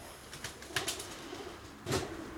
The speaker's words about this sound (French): Donc le pigeon est mort, je l'entends. Euh, voilà. l'oiseau a été touché correctement.